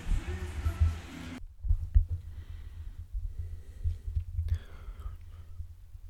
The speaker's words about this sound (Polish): tak naprawdę jestem przy samym wentylatorze i włączę go na maksa, proszę Państwa. A filtr jest, proszę Państwa, na 100 Hz. Zaraz będzie przekręcał się w odpowiednie miejsce i zawieje. Teraz bezpośrednio wieje w mikrofon, tak naprawdę.